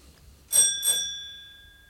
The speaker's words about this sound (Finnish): Sen kun soitat ovikelloa.